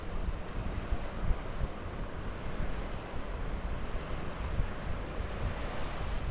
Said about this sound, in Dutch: Eh, even luisteren naar de Noordzee? Ja, heel graag. En dan ga ik luisteren naar de Noordzee, misschien iedereen?